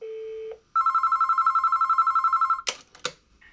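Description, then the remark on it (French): A steady dial tone gives way to a rapidly warbling telephone ring heard over the line for about two seconds, then sharp clicks and clatter as the call is picked up: a phone call to the office of Maurice Papon's lawyer. “Il faut juste un téléphone.”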